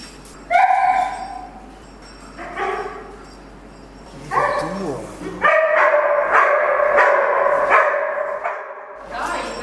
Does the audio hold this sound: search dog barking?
yes